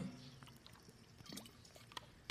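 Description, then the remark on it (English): Quiet sounds of water being poured and sipped, with soft liquid trickles, small clicks and a faint swallow against a low background hum. “Excuse me while I grab a grip of water.”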